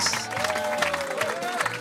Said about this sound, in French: On applaudit